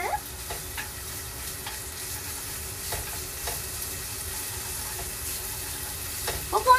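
Small pieces of pork sizzle steadily as they stir-fry in a pan with sesame oil, a dense crackling hiss with scattered sharper clicks and scrapes of stirring with disposable chopsticks, fairly loud, over the constant low hum of a kitchen ventilation fan.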